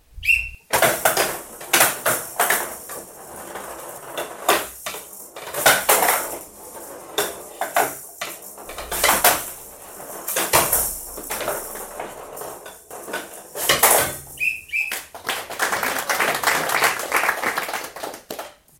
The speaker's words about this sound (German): Die Spieler müssen den rasselnden Spielball flach unter einer vertikalen Platte in der Mitte des Tisches hindurch in ein Tor auf der gegnerischen Seite schlagen, mit Hilfe eines Schlägers.